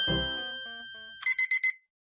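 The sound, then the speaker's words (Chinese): An alarm clock goes off: a fading, bell-like chime gives way to four quick, bright bursts of high-pitched ringing in a steady rhythm, then silence. No one speaks. “哎呀，今天是星期六，闹钟你别响了，让我多睡一会儿吧。”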